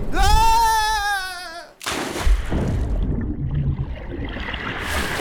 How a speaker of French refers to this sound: Et le bateau qui repart sans plus se soucier de moi.